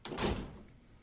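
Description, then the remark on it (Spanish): A dungeon cell door is opened to let someone out, in one heavy, grinding burst of noise that swells briefly and then fades away over about a second, with no voices. “Le abre la puerta para que salga y queda a solas con Reinaldo en el calabozo.”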